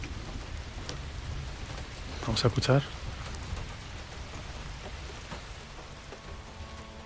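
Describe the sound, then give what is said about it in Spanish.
Steady rain falls throughout in a continuous, even hiss of drops. A voice speaks briefly near the start, and faint music characteristic of the north creeps in toward the end. “A ver, suena lluvia, suena lluvia.”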